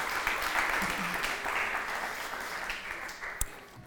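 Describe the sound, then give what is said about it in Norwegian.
A crowd applauds steadily for four people who helped tell the story of Daniel, a dense wash of many hands clapping at an even level for several seconds, with one sharper clap standing out near the end. “Gi alle, sammen, alle fire en applaus.”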